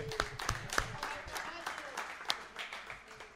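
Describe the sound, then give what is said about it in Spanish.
A scattered round of hand claps for the top twelve of a ranked list, irregular, with several sharp individual claps standing out over a low murmur of voices. “Vale, un aplauso, un aplauso a los doce.”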